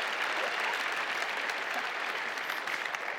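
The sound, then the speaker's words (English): A crowd gives a participant a round of applause, clapping steadily in a dense, even wash of many hands with no pauses, holding at a moderate level for a few seconds without any voices standing out. “Can we give Loden a round of applause for me?”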